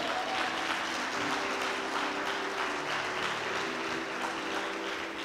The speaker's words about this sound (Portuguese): Pode aplaudir o Senhor.